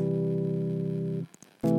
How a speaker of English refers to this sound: This movement. A minor chord to a major chord. Minor to the 1.